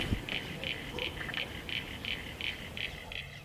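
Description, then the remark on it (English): A spotted marsh frog (Limnodynastes tasmaniensis) calls a steady series of short, evenly spaced 'bup' notes, about three per second, moderately loud over a soft background hum. “There's another one I can hear that's going bup, bup, bup, bup, and that's Limnodynastes tasmaniensis, or the uh, spotted marsh frog.”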